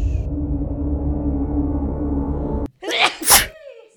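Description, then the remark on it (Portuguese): A low, steady background hum gives way to a quick sharp intake of breath, then one loud sneeze bursting out near the end, with no talking. “Saúde. Saúde.”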